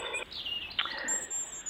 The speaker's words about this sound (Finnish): Tässä sitten punarinta täysillä.